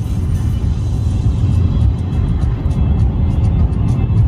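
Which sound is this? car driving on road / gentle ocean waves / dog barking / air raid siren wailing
car driving on road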